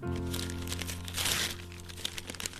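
A birthday gift containing a phone case is unwrapped, a steady run of crinkling and rustling paper lasting a couple of seconds, swelling briefly midway, then ending in a few sharper crackles over a low, steady background hum.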